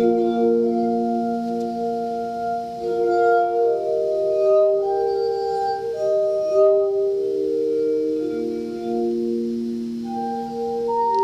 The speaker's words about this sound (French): des lattes de cristal juxtaposées et connectées à un système d'amplification. On y joue avec les doigts mouillés, c'est Dean Chostak qui a inventé le Crystal Batchet. Et c'est bien joli.